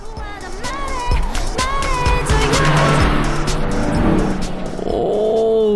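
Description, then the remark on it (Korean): A loud car roars past alongside on the road, its engine noise swelling and then dropping in pitch as it goes by, with music blaring from inside the car the whole time. “자 옆에 차가 지나갑니다 옆 차에서 과연 어떤 노래를 듣고 있을까요 들어볼까요”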